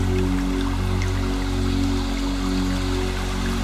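A small stream splashes steadily over rock steps, a continuous rush of running water with no pauses, accompanied by a low, steady droning hum underneath.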